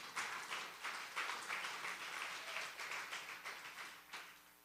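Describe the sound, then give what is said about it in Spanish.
An audience at a church service applauds the Lord steadily, with dense overlapping claps swelling in loose rhythmic pulses for several seconds. No one speaks over it. “Dale ese aplauso al Señor.”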